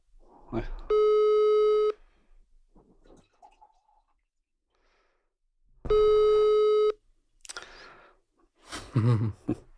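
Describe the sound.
Two steady, one-second telephone ringback tones sound about five seconds apart, loud and clear as a call is placed, with faint rustling between them and brief voice sounds near the end.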